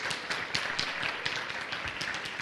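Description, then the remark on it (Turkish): Steady audience applause at an event, welcoming Türk Telekom executive Mert Başar to the stage: many hands clapping in a dense, continuous patter of sharp claps at an even loudness, with no voices over it. “Mert Başar'ı alkışlarla sahneye davet ediyoruz.”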